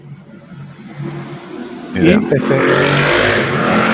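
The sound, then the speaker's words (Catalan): A motorcycle roars past outside, its engine revving up sharply and staying loud as a broad rush, while people talk quietly underneath. “Ah, això era una moto, no? Això és una moto, és una moto.”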